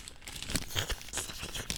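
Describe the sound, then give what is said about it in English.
Papery crinkling and rustling as money for a donation to the Natural Resources Defense Council (NRDC) is slipped into an envelope, a steady run of soft, scratchy crackles and brief crisp bursts with no talking. “I'm putting, I'm putting my money in the envelope”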